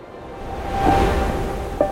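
A steady wash of sea surf rises into a soft swell and then ebbs, like a single wave rolling in. Faint tonal hints sit under the noise, and no one speaks.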